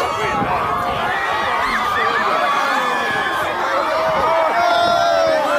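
A dense crowd of teenagers swarming Bernie Sanders on Capitol Hill screams and cheers continuously, high-pitched shrieks and whoops layered over a loud, steady babble that never lets up for the whole stretch.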